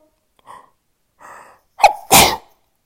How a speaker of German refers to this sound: Für alle die, die jetzt im Kopf haben, Gesundheit gesagt haben oder es vielleicht sogar laut haben ausgesprochen haben, merci vielmal.